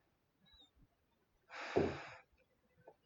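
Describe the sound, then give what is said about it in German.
A single heavy, noisy breath blown into the microphone, lasting under a second, with a few faint small clicks and rustles before and after, otherwise quiet. “Soll ich noch lauter atmen?”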